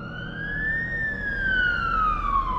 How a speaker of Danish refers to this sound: De hylende sirener fra udrykningskøretøjer fra brandstationen på Fælledvej og ambulancer fra det nærliggende Rigshospital overdøvede mandagstrafikken på Nørrebro.